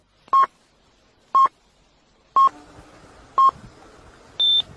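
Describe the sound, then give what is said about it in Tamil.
Radio time signal: four short, evenly spaced electronic pips a second apart, then a final longer, higher-pitched beep marking the start of the hour, clear and prominent over a faint background hiss. “சில பிப் ஒலிகள் ஒலிக்க விடப்படும் கடைசியாக ஒலிக்கும் அந்த நீண்ட பிப் ஒலி மணித்தியாலத்தின் ஆரம்பம் என்று பொருள்”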